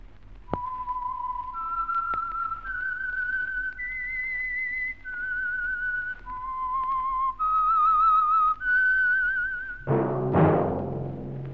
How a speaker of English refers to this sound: That whistle is your signal for the Signal Oil Program the Whistler.